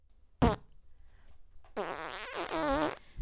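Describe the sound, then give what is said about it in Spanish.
A brief sharp puff, then after a pause a long, loud, buzzy fart that wobbles in pitch for over a second before trailing off. No one speaks. “Bueno, le dejaron pasar, pero a los diez minutos de sueño sin ronquidos, se oyó un leve...”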